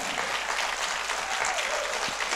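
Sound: audience clapping hands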